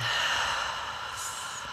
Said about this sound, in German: Dann atmen wir jetzt mal tief ein und